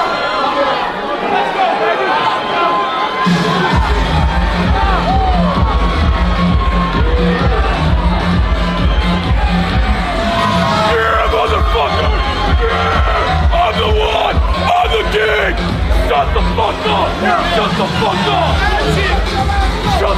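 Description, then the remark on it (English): A large crowd cheers and shouts at a Power Slap fighting event, a dense continuous roar of overlapping voices with a heavy low rumble underneath that stays loud for the whole stretch. “most recent trip to the um to the power slap”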